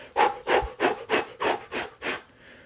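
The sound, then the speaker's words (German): Seven rapid, forceful exhalations in a steady rhythm, each a sharp breathy puff, with no talking, then the breathing stops. It is a breathing exercise of very fast, very hard exhaling without focusing on inhaling. “Und im Prinzip atmet ihr dabei sehr, sehr schnell und sehr, sehr feste aus und auch gar nicht so fokussiert auf das Einatmen.”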